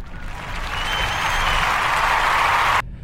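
A burst of applause from a crowd, dense and steady clapping that swells slightly and then cuts off abruptly near the end, with no voices.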